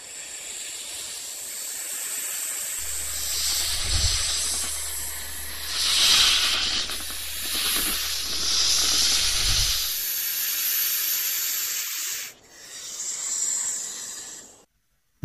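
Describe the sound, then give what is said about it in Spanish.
A snake hisses loudly in long airy surges that swell and fade over a low rumbling drone, then cut off briefly before one last hiss. No one speaks. “apareció la serpiente y engañó a Eva”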